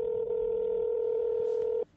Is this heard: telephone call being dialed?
yes